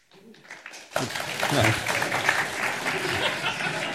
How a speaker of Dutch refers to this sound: oh, makkelijkste applaus van de dag.